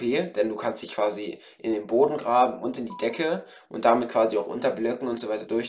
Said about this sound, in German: Tut mir leid für das Handy klingeln gerade. Sehr unprofessionell, sorry.